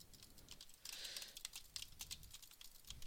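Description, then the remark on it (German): Rapid, clattery keystrokes on a Trust or GXT gaming keyboard, a dense stream of clicks and taps with a brief busier burst, continuing for a few seconds with no one talking. “Ach du Scheiße, ich drücke die falschen Tasten.”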